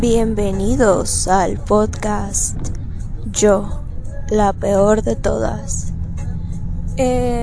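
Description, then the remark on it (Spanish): A steady low rumble of a bus engine and road noise runs continuously beneath a woman speaking while she rides the bus home, with music playing on the bus; a constant droning hum that never lets up. “la verdad, perdón por el ruido de fondo, voy en el camión de camino a mi, a mi lugar de origen.”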